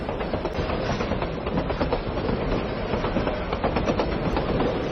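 A train runs along the North–South railway in Vietnam, its wheels clattering in a repeating clickety-clack over a continuous loud roar, with no voices present.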